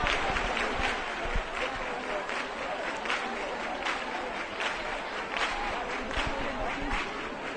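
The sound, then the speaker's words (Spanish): A large crowd applauding steadily at a romería procession, a dense wash of many hands clapping at an even loudness for the whole stretch, with faint crowd voices mixed into the clapping. “Los aplausos.”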